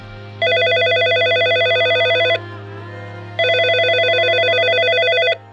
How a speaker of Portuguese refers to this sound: Em meio a conversas e atendimentos na delegacia, de repente o telefone toca.